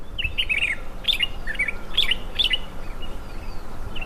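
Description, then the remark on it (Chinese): A black bird high in a tree overhead chirps in a series of short, high, twittering bursts, about six quick phrases in a loose rhythm over a steady low background hum, heard during a rest stop on the road. No one speaks. “那 在路上休息时，突然听到脑袋上方很清晰的鸟叫声， 争取的往上飞。”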